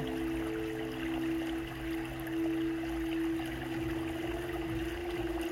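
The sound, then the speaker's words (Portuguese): Continuous flowing stream water in a background music track rushes steadily throughout, moderately loud and even, with a low sustained tonal hum running underneath and no voices. “Tá sentindo essa água purificando o seu interior?”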